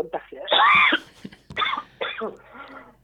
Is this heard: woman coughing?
yes